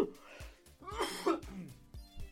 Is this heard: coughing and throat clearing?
yes